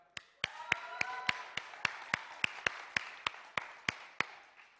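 A short round of applause for the technician: steady, rhythmic clapping of about fifteen sharp claps that stay fairly even in pace and loudness, with a brief voiced tone near the start.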